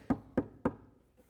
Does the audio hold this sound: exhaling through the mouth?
no